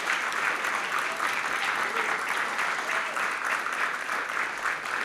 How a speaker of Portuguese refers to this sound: Se eu fosse você, eu aplaudiria ao Senhor por causa disso.